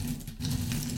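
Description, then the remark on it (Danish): A steady mechanical rattling and whirring of almonds tumbling while being made into caramelized almonds, with a low humming drone running continuously under a brief burst of activity and no voices. “Brændte mandler, så ja. blev til karamelliserede mandler. De lyder sådan her.”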